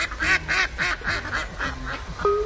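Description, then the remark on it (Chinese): Little ducks give disappointed quacks in a quick, uneven run of about eight short, nasal calls, fairly loud with no voices, ending on a longer, steadier call. “小鸭子们发出了失落的叫声”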